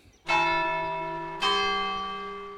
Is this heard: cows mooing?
no